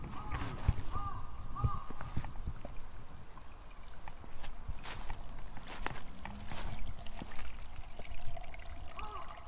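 small stream flowing

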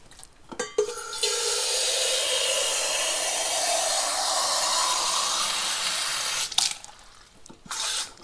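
water running

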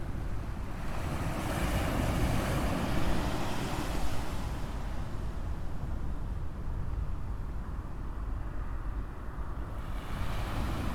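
ocean waves on shore

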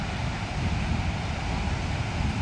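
ocean waves

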